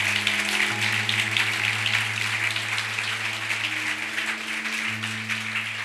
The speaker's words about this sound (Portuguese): Vamos dar uma salva de palmas a Jesus por isso, amados.